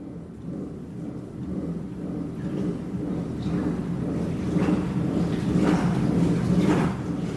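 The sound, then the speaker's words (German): A steady low mechanical rumble with water surging and sloshing in slow, regular swells that grow slightly louder toward the end, as a hydraulically driven paddle at the end of a roughly 20-metre wave flume generates periodic waves. “Am Ende des Beckens befindet sich eine hydraulisch angesteuerte Wellenklappe, eine Art Paddel, das zunächst periodische Wellen erzeugt.”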